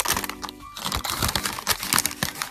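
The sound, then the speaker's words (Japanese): Continuous crinkling and crackling of a Starbucks paper bag holding a muffin, with a sheet wrapped inside, being handled, with irregular bursts of rustling and small crunches throughout, no talking. “こうさ、スタバのめっちゃ好きなところが、こうね、マフィンをまず紙袋に、えー、入れて、そしてさらにその中にも、なんかシートみたいな、包んでくれるところがいいと思うのよ。”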